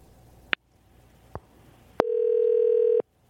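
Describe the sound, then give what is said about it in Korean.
A few short clicks and taps as a call is placed to a listener, then a steady, mid-pitched telephone tone hums unbroken for about a second before cutting off. No one speaks. “7986님한테 전화 한번 걸어볼게요.”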